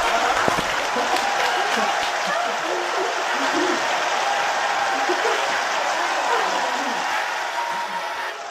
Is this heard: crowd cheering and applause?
yes